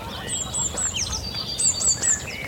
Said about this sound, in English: Distant Canada geese. So that, there's a lot of life here. It's a gorgeous mid April morning. A little bit windy, but I'm walking among the reed beds here